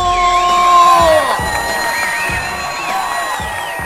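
A loud audience erupts in cheering, with high whoops and shouts layered over a steady crowd roar that holds for a few seconds and eases only slightly.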